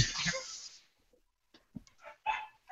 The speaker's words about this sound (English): I had to mute, I literally 30 seconds ago had to mute my had to mute my microphone so my dogs would stop fighting.